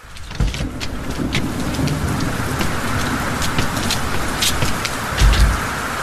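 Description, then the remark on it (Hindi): A steady downpour of heavy rain, a dense continuous hiss with scattered drops pattering on surfaces, and a low rumble swelling briefly near the end like a passing vehicle, as someone sets out on foot in the rain carrying a can to fetch petrol from a petrol pump. “तेज बारिश और पांच किलोमीटर का वॉक उफ खैर डब्बा लेकर बाहर बारिश में निकला”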